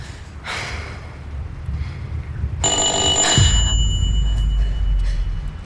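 A single intercom buzzer ring, about a second long, sharp and close against a quiet room, fading into a low rumbling hum afterward. No one speaks.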